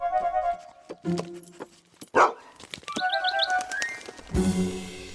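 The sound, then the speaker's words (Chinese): The dog Radar lets out a few sharp, loud barks while a small bird, Tom, chirps in quick high trills, followed by a burst of noisy commotion as the bird is startled away. “嗯，雷达，你把它吓跑了。”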